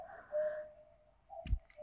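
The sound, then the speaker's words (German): A modern cuckoo clock marks eight o'clock, its hooting bird call sounding indoors alongside a faint mechanical click and a soft thump, with no one talking over it. “wir haben neuerdings eine Kuckucksuhr”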